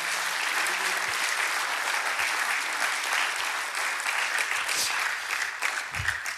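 Sustained applause from a large audience in praise of God, a dense, steady wash of clapping that holds at an even, fairly loud level for several seconds with no voices standing out.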